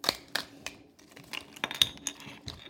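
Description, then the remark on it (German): A Kinder Joy plastic toy egg capsule being opened: a quiet series of sharp plastic clicks and snaps, irregular and brisk, with light rattling between them and no voices. “Kinder Joy Opening”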